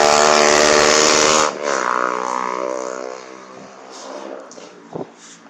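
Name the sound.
motorcycle passing by outside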